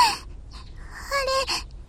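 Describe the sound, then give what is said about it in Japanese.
A woman cries softly, with a brief shaky whimper at the start and a couple of quivering, sobbing breaths a moment later, quiet with no words. “なんで私泣いてるんだろう。”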